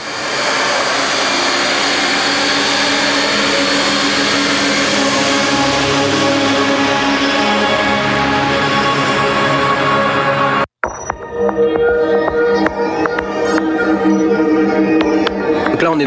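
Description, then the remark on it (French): Presets from the Absinthe software synthesizer, which comes with over 2000 presets, played back to back: a dense, bright, sustained tone that gradually mellows, then a brief gap and a different buzzy, pulsing synth sound with sharp repeated attacks. No talking. “il y a 2000 plus de 2000 presets donc je vous fais écouter”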